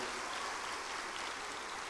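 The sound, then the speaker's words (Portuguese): A church audience applauds the Lord for its leadership, a dense wash of many hands clapping at once that stays even and sustained for the whole moment, with no voices rising above it. “Então eu queria que você aplaudisse ao Senhor pela liderança de vocês.”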